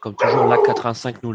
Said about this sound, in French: On a, on un berger allemand là. oui, c'est mon chien, pardon.